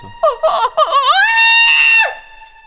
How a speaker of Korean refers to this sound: 저는 그 길로 반쯤 정신줄을 놓은 채로 소리를 꽥꽥 질렀는데요. 그 소리에 잠에서 깬 가족들이 전부 제 방으로 몰려들었어요.